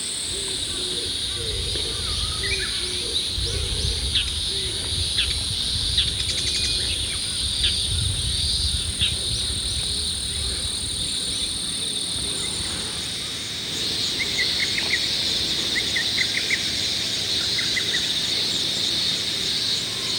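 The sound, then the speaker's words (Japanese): Morning ambience at the Oyama Senmaida terraced rice paddies in Kamogawa, Chiba Prefecture, Japan: a steady high drone of insects carries throughout, with scattered bird chirps and a soft low rumble of wind or water underneath. “今朝は千葉県鴨川市にある大山千枚田棚田のいい音それではお聞きください。”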